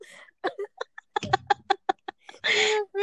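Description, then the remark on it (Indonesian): A series of small, quick coughs in an uneven run, each brief and light, ending with one longer, harsher cough or throat burst. “dengar lo batuk batuk kayak kayak ya udah ya udahlah keluarin aja batuknya jangan sedikit sedikit eh, nggak bisa kalau gue keluarin nanti jin gue pada keluar”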